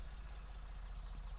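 A potato harvesting machine drones steadily in the background, a low, even engine rumble with no breaks and no voices.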